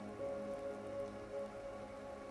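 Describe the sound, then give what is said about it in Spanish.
Steady rain patters on a hard surface, a continuous wash of droplets with no voices, holding an even, moderate level throughout. “Sigue lloviendo.”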